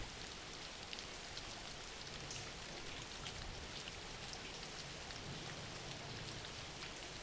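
Steady rain falls without pause, a dense, even hiss spread across the whole range with soft low patter beneath, constant in loudness throughout and with no voices.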